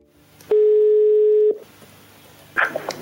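A phone line's outgoing ringing tone as a man calls his girlfriend: one steady, clear one-second beep over a quiet line, followed by a brief rustle and click as if the call is picked up.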